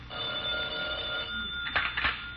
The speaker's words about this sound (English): uh, who's that? The phone. I'll answer it.